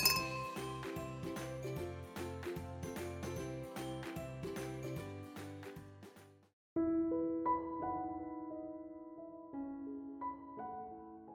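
Glasses clink in a toast, bright ringing chinks over a busy rhythmic musical backing, followed by a quieter stretch of several clear, sustained ringing tones at shifting pitches. No one speaks.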